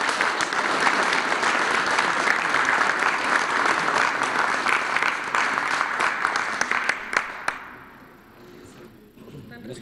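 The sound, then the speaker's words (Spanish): Sustained applause from a crowd, dense and steady clapping with sharp individual claps, holding strong for about seven seconds before fading out to a quieter murmur. “Eh, un aplauso y si.”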